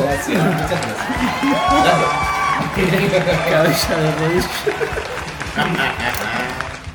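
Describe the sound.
A crowd applauds and cheers for several seconds to welcome a guest: steady dense clapping mixed with overlapping shouts and whoops from many voices, staying loud throughout.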